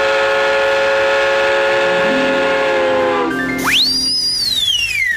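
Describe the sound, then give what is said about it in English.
A train passes by, its loud horn holding a steady chord that sags in pitch, then a shrill whistle swoops up and slowly falls away over a rumbling background, with no talking. “It's a long trip by train, especially all the way to Japan.”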